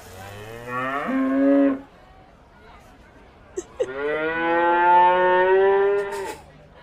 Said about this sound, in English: and then you hear you hear the sound of like a bunch of cows in the background.